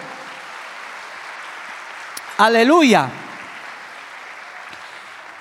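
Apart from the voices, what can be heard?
audience applause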